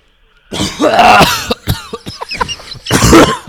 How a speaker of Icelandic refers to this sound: ég er bara með eitthvað þurran hósta búin að vera með í nokkra daga